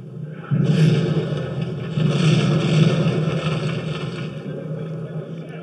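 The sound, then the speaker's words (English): A Humvee engine in a video game rumbles steadily from about half a second in, a loud low droning hum with a rough, gritty texture that swells slightly midway and continues without a break. “Now, what I'm going to do is I'm going to put you back in the vehicle real quick. Okay. And I'm going to put it to brighter time of day. Okay fix that Humvee.”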